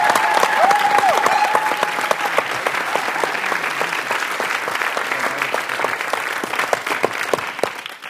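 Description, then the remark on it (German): Sustained audience applause for the host of the LGBT show Sputnik Pride, a dense wash of many hands clapping at a steady loud level for about eight seconds, with a brief whistle near the start before tapering slightly at the end. “Und einen fetten Applaus auch für dich, lieber Kai.”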